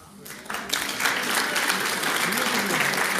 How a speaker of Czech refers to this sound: Velký potlesk, hej.